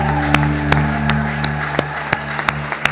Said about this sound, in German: Ganz einen kräftigen Applaus für unsere Gäste. Ganz herzlichen Dank fürs Kommen.